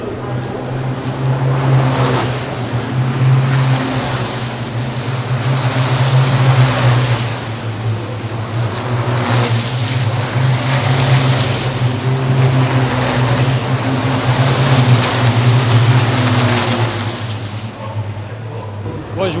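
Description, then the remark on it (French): Powerful racing truck engines roar continuously and loudly during a race on a track, a deep rumbling drone that swells and eases in waves as the vehicles pass, filling the whole stretch without pause. “Du bon boucan, on ressent la puissance euh, qu'il y a sous les moteurs.”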